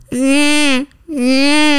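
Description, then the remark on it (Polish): A person mimics a baby's wail with two loud, sustained crying sounds separated by a short breath, clear with no other voices. “mam bobasa. I on wtedy robi”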